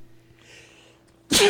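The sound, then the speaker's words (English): A faint, drawn-in breath builds for a moment, then one loud sneeze bursts out abruptly at the end, with no talking around it. “Oh, well, I got sneezes.”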